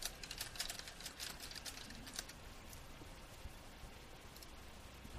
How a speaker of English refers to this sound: Yeah, I can hear you typing